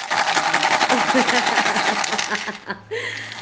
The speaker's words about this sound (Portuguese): Ô professora, então eu fiz um chocalho. Olha o barulho.